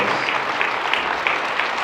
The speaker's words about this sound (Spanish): Vamos a dar un aplauso fuerte a Jesús, hermano. Fuerte, fuerte, fuerte, hermano. Fuerte.